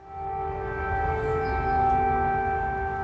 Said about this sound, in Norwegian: I går ulte sirenene over hele Ukraina. I hovedstaden gikk flyalarmen hele fem ganger.